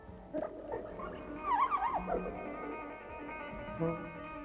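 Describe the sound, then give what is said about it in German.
A person vomiting: a short strained heave, then a louder gurgling, wavering retch in the middle, trailing off into a final weaker gag. “sondern das Geräusch, wenn sich ein Mensch übergeben muss.”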